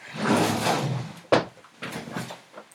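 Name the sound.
chair being moved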